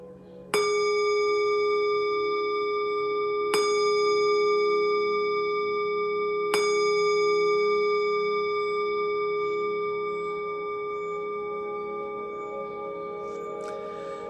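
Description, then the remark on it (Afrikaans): Three clear bell strikes spaced about three seconds apart, each ringing out with a long, shimmering sustain that slowly fades, heard alone without any talking, rung to end a meditation session. “wanneer die klokke lui, kan jy stadig jou oë oopmaak.”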